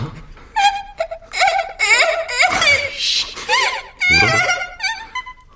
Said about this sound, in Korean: 울어? 울어? 내가, 내가 니들 우는 소리 세, 상에서 제일 듣기 싫다고 했어 안 했어?